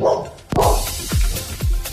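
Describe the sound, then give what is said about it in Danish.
A dog barks three times in quick succession, each bark loud with a sharp onset and a quickly dropping tail, over a low background rumble. “Og det var så lige øh, direkte oversat til hundesprog.”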